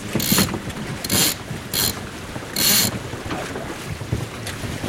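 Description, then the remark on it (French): A sailboat sailing downwind on a very calm sea, heading for the Île du Levant, with rushing wind buffeting the microphone and occasional creaks and clicks of rigging and gear, plus a few louder hissing gusts. “On est toujours au vent arrière. Tranquille. Pour le moment la mer est très calme.”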